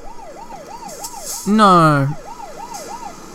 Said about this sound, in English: Hey, were you wondering what the hell that that uh, that noise was, listeners? It was an 800 euro fine. Um Yeah, it was an 800 euro fine.